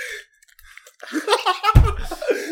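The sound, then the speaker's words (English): A voice imitates the wet, sloppy kissing noises of people making out on TLC shows: a quick run of squelchy mouth smacks and slurps, then a louder, throatier burst near the end, as if breaking into a laugh. “Yeah, the sounds they were making when they were making out were like.”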